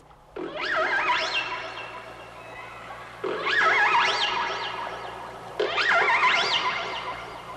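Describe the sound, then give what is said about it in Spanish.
Whale song vocalizations come in three separate bursts, each a series of loud, swooping tonal calls that glide up and down in pitch, with no talking over them. “Esta es la voz de las ballenas en el rincón de los niños, porque hoy vamos a hablar de ballenas.”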